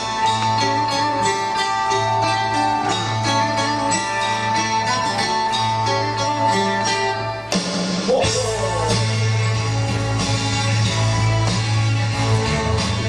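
A full band track plays loud and steady, with driving drums, bass and layered instruments; after a brief dip midway the music surges back with a heavier, denser section. No one speaks.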